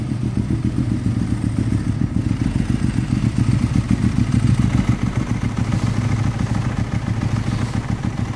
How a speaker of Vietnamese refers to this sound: Tôi nghe thấy tiếng động cơ xe tiến lại gần Ngó ra thì thấy Tú Khỉ đang lái chiếc mô tô ba bánh Chạy vào sân